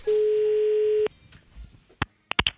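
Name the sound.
telephone ringing tone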